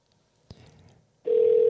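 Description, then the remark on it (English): A telephone handset clicks and rustles briefly, then a loud, steady dial tone hums on without a break as someone tries to redial a dropped phone call. “Let me see if I can get him back.”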